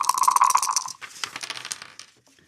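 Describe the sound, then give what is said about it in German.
A die rolls across a hard tabletop, clattering and tumbling rapidly for about two seconds, fairly loud, before coming to rest. No one speaks. “Ich habe einen Würfel mitgenommen.”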